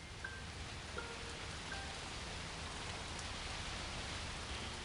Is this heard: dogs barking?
no